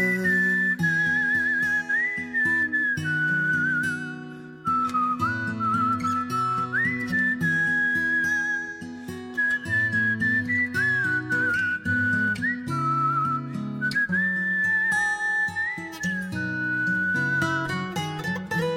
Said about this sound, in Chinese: 刚前面那段口哨真的非常的棒，是大森听到这段口哨的时候，就整个鸡皮疙瘩起来了啊。